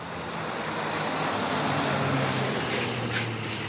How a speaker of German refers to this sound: Wir stehen hier in der neuen Spätstraße in Berlin-Neukölln. Ja, es ist ein extremer Standort. Hier fahren tausende Autos durch